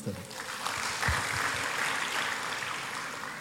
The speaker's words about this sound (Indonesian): Kasih ya. Kasih tepuk tangan dulu